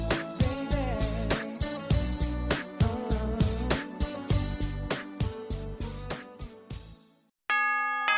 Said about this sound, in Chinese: 新年的钟声已经敲响，新年的日历已经翻开，二零一四已成过往，二零一五崭新开启